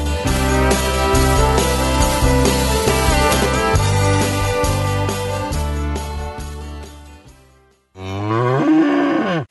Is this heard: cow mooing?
yes